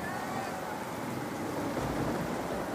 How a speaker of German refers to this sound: Die Wellen rollen über das Deck und dringen auf beiden Seiten ein.